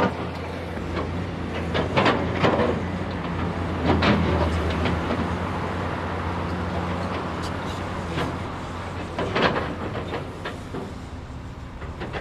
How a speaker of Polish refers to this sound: To wszystko dlatego, że ten proces sprzątania, porządkowania wciąż trwa, a usuwane czy usunięte szczątki są gromadzone w kilku miejscach i składowane mniej lub bardziej bezpiecznie. Ten proces burzenia zresztą ciągle trwa, jak można usłyszeć.